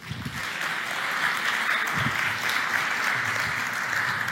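An audience applauds steadily, a dense crackle of many hands clapping at an even, fairly loud level throughout, with faint low murmurs underneath.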